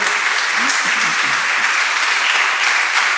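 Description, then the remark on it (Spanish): Loud, sustained applause from an audience at a church service welcoming the pastor, a dense unbroken wash of clapping throughout, with faint voices briefly audible underneath near the start. “Dele un aplauso fuerte.”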